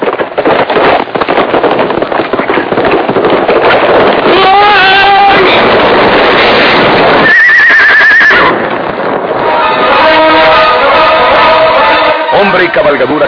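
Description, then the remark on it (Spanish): Horses neigh loudly several times, shrill whinnies rising above a constant rumble of galloping hooves and busy, clattering background noise, intense throughout. “Tal vez esta circunstancia salvó de morir ahí a Porfirio Cadena, porque si el caballo le cae encima, lo mata.”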